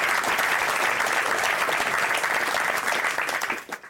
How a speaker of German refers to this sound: Herr Keuter, Ihr Applaus. Applaus